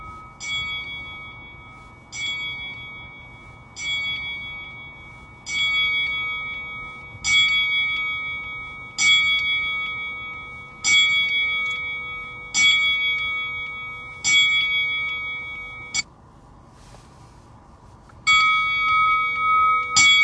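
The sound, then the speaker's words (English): A wrestling ring bell is struck repeatedly and loudly at a slow, steady pace in a 20-bell salute for Howard Finkel and Ox Baker, about a dozen clanging rings, each ringing out briefly before the next, with no voices. “So to honor those two men, right now we will do a 20 bell salute.”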